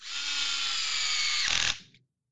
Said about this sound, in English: If I hear that one more time, I'm going to take that electric drill and shove it where the sun doesn't shine the next time I see you.